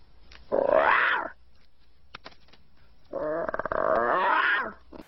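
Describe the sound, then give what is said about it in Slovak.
A toddler imitates a lion's roar twice, each a loud, strained, growly shout lasting about a second, with the second roar longer and rougher, separated by a quiet pause. “Inak presne takto znie jasličkár, keď sa snaží napodobniť leva.”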